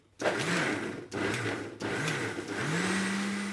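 A kitchen blender whirs loudly in short pulses, then runs steadily as its motor pitch climbs to a high, sustained whine, with no voices; it is mixing the base for ice cream.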